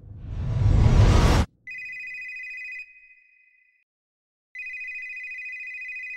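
telephone ringing

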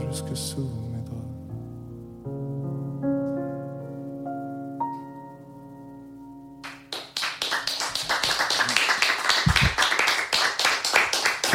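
small studio audience applauding

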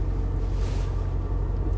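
car driving on road

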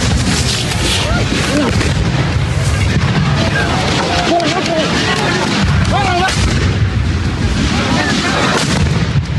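firecrackers exploding

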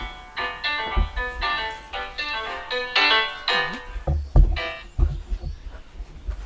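mobile phone ringing

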